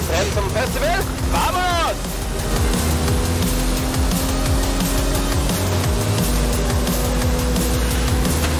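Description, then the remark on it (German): A loud, continuous engine roar from an AMG car in a racing video game, with quick rising whines early on as it revs up, then settling into a steady high-speed drone with voices faintly underneath. “Oh, der zieht. Wir schaffen über 300, oder?”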